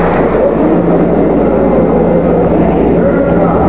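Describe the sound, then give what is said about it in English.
The Apollo 11 rocket engines roar at liftoff, a loud, dense, unbroken rumble that holds steady for several seconds with no voices over it. “All engine running. Liftoff. We have a liftoff.”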